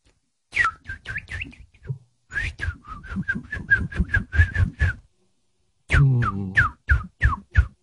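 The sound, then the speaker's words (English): A person whistles a quick run of sharp, chirpy notes in imitation of a parakeet, fairly loud, in three bursts separated by short pauses, with no talking. “Parakeet. That's parakeet. That's right.”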